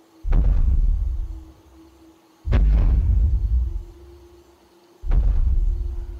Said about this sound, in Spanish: Es como si algo muy grande golpeara un árbol.